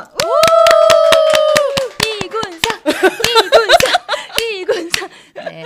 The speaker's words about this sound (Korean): 아, 박수 박수 한번.